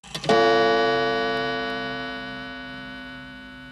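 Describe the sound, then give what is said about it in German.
A single gong strike rings out clearly, its bright metallic tone sustaining and slowly fading over several seconds with no other sounds around it. “Äh, ich würde sagen, wir schließen das Thema an, ein, noch ein Gong, ein kleines Fazit und wir hören uns gleich wieder.”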